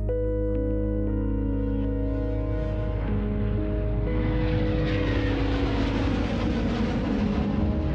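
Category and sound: vehicle, airplane engine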